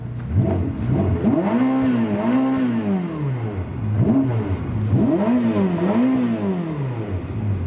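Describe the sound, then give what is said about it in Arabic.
The engine of a 1,000-horsepower Ferrari SF90 Stradale street car revs repeatedly, its loud, rising and falling engine note climbing in pitch with each blip of the throttle, in two distinct bursts with no talking. “وتجارب تسارعات عديده للاس اف 90 استرادالي الف حصان الف حصان حط لنا فاصل طربي خفيف لاس اف 90 خلينا نطرب الشباب بعدين نرجع بنكمل”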